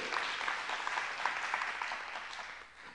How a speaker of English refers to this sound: Come on, you can give the Lord a hand clap for that.